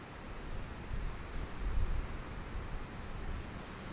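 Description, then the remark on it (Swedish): Steady wind blows outdoors by the sea among many rustling, fluttering leaves, a broad hiss with low rumbling gusts buffeting the microphone, swelling around the middle. A faint wash like surf sits underneath, and no one speaks. “Det blåser eh, härliga vindar idag.”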